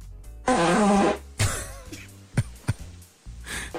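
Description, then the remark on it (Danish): A loud, buzzy fart from a Danish person, with a wavering pitch, lasts under a second, followed by several shorter sputtering bursts and a faint breathy trail, with no talking. “dansk skib”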